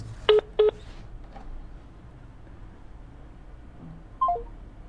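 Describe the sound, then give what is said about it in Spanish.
Two quick telephone keypad tones beep in succession near the start, followed by a brief falling electronic tone a few seconds later, over faint background hiss with no talking, as a cut-off phone call is redialed. “Bueno, intentaremos comunicarnos, y cortó la conversación con Betty. Vamos a, retomar la llamada”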